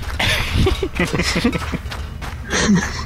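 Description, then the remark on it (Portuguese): Quick, repeated footfalls of someone running, fairly loud, with a brief vocal grunt or murmur mixed in partway through, then another burst of movement near the end. “Estão correndo, minhas pernas são curtas.”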